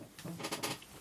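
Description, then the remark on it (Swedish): A chair creaks softly as someone shifts their weight, a string of short, dry squeaks and rustles, ending in a slightly louder scrape. No one speaks. “Var lugn med stolen bara, den låter.”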